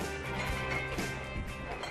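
Glasses clatter and clink together as they are handled and sorted, a busy, steady run of sharp knocks and rattles with no voices.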